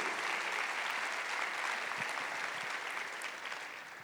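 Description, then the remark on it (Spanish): A crowd applauds steadily for the Lord Jesus, a dense wash of many hands clapping that holds strong for several seconds and eases slightly toward the end. “Dele ese aplauso fuerte al Señor Jesús.”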